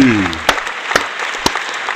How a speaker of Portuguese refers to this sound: Palmas para o país independente! Muitas e muitas palmas ao país independente, mano!